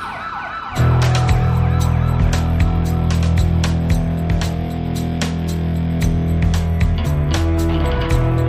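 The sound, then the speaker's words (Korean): A fire engine siren, responding to a call to the fire station about an apparent explosion at Gangnam Apartment building 102, blares in loudly after a brief quiet moment, holding a steady, harmonic-rich tone over a deep engine rumble, with scattered sharp clicks and no talking. “어, 어, 어 벌써 오네, 벌써 오네. 제, 제, 제가 소방서에 연락했어요.”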